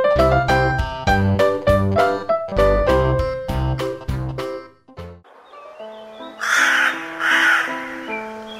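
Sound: crow cawing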